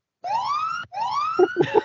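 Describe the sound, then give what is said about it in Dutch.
A timer alarm goes off with two loud, rising electronic wails that sound like a siren, the second one joined by a few quick, punchy beeps near the end. “even kijken of deze timer geluid maakt.”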